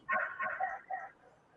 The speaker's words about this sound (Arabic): عندكم الكلاب بزاف تما